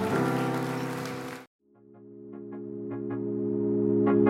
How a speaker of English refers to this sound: Can we give these six individuals that raised their hand a huge round of applause today? Yeah, yeah, yeah, yeah, yeah.